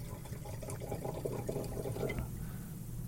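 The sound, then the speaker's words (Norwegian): Chianti wine glugs steadily into a glass for about two seconds, a bubbling pour with rising gurgles that stops abruptly, leaving a low background hum. “Chianti, jeg må helle oppi det deg først, som vanlig. Å, hør den Tusen lyden, da.”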